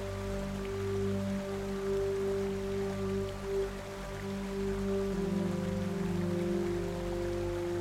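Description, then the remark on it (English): Soft, steady rain patters continuously beneath a sustained, low ambient musical drone, the gentle hiss staying even and unbroken throughout with no one speaking. “A gentle rain begins.”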